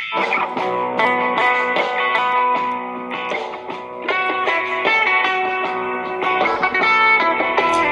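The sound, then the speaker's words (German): Dense, steady Malian desert music with layered harmonic tones, a distorted electric guitar sound and repeating rhythmic phrasing, playing loudly and continuously without any voices. “Und in Mali treffen die sich immer und da, da, spielen die dann diese ganze Wüstenmusik und die nordafrikanische Musik.”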